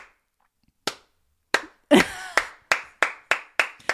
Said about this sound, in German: Alle, die das jetzt zu Hause hören, sind so, kennst du diesen, diesen Appreciation-Applaus, der so anfängt, so.